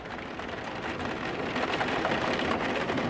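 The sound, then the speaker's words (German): Heavy rain pours steadily in the middle of the night outside a hotel in La Bresse, a village in the Vosges, a dense, continuous hiss of drops drumming on surfaces, fairly loud and unbroken throughout with no voices. “Draußen regnet es in Strömen.”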